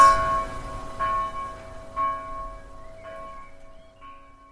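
A bell rings out about five times, struck roughly once a second, each bright metallic tone lingering and overlapping the next before slowly fading. No voices are present.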